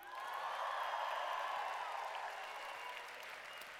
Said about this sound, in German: Äh, aber wir hatten gestern Abend Spaß, von dem her mal können wir alle jubeln, die gestern Abend Spaß hatten mit ….